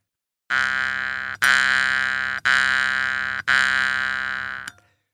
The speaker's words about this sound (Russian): Когда вы играете на варгане, вот вы сейчас дергали за язычок, он выдает звук одной высоты.